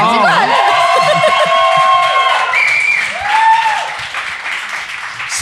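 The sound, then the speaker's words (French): An audience claps steadily and loudly for several seconds, the dense patter punctuated by rising whoops and cheers from the crowd throughout. “Applaudis encore, bon.”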